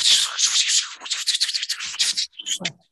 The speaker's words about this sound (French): ça sonne comme euh, ça sonne comme de la pluie, ça. exact. Oh c'était un hein. effet sonore euh, pas très subtil, mais euh, il pleuvait donc bien à San Francisco